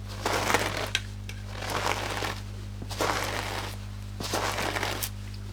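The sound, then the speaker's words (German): Four slow, heavy foley footsteps crunch through deep snow, each a loud, gritty compression spaced about a second apart, with a faint steady hum underneath and no voices. “die Art und Weise kann man natürlich auch jede Konsistenz von Schnee machen. Mhm. Also umso tiefer der Schnee ist, umso tiefer ist der Schnee.”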